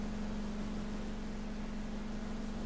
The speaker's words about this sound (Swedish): Det brusar mm. för att eh, liksom, gainen är lite för mm, mm. hög här. Så det ligger ett ständigt shh.